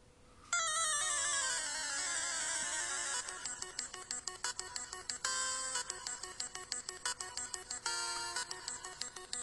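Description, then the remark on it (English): Bright, chiptune-style Pokemon gym leader battle theme music plays loud and alone, opening with a sweeping synth phrase and then settling into a fast, tense, staccato pulsing rhythm. No one speaks. “Oh yeah, they had their own special, their own special turn, their own little special tune as well.”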